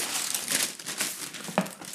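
Sandwich paper (Butterbrotpapier) crinkles and rustles continuously for two seconds as it is taken to wrap a burrito, a dense, crackly texture of bright crisp noise with a slightly louder crunch near the end; no one speaks.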